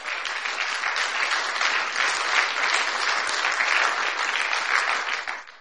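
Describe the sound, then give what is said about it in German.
Sustained applause from an audience welcoming a pastor to the front, a dense crackle of many hands clapping at steady, fairly loud volume for several seconds before fading away at the end, with no talking over it. “Und ich bitte euch mal, dass wir ihn ganz, ganz herzlich in unserer Mitte begrüßen mit einem ganz gewaltigen Applaus.”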